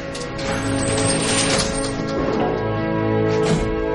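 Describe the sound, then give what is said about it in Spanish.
Churchill opens the metal lattice gate of a stopped elevator at No. 10 Downing Street: the gate rattles and clanks open, followed by a door being opened, with a steady mechanical rumble underneath and several scraping, ratcheting metallic sounds across a few seconds. “Churchill abre la reja y una puerta.”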